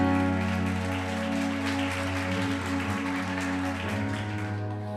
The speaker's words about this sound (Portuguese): Dá uma salva de palmas para adorar Jesus.